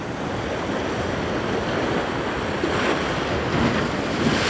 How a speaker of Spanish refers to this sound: Cobra vida con la energía del mar, con la intensidad de las olas que entra mientras respiras.